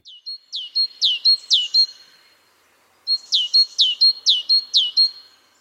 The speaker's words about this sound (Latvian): O, nu, bērni, kas tur dziedāja? Kas tas bija par, par putniņu? Uz šo jautājumu es jums pateikšu atbildi priekšā. Tā bija zīlītē.